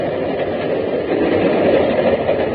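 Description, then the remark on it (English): A moving train rumbles and clatters on its rails in a steady, unbroken roar of low and mid-range noise, fairly loud throughout, with no voices. “When we leave the train at Fashoda,”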